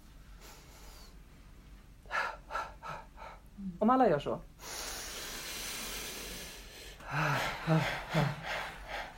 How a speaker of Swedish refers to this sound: Och om man ska gråta på scenen så är det ju en, att man... Det är samma funktion som skrattet. Man, man, om ska säga, man andas in.